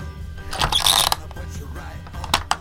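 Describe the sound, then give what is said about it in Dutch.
A door being locked: a short run of metallic clicks and rattles, with a sharp snap near the start and two more crisp clicks at the end. No one speaks. “Ja, weet je, we doen gewoon de deur op slot.”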